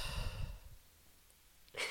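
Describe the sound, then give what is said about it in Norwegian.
During a breathing exercise, a slow, breathy exhale, breathing out over a count of eight, fades out over the first second, followed by near silence, then another soft airy breath begins at the end. No talking. “Så puste ut på åtte.”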